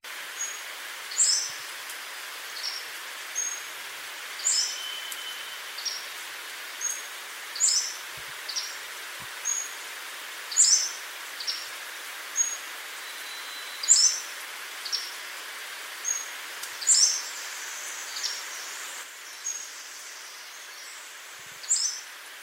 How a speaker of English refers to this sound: I guess main song of the Pacific Slope Flycatcher. Uh, that's part of that song as well. So here is a clip of the Pacific Slope Flycatcher and the other part of its song.